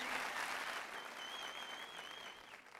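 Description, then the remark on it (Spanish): A crowd applauds the diamonds, leaders and emeralds of a business team, a dense wash of many hands clapping at a fairly even loudness throughout, with a faint thin whistle-like tone rising above the clapping partway through. “Quiero dar un aplauso a todos sus diamantes, a todos sus líderes, a todos sus esmeraldas que están ahí, tu equipo de apoyo.”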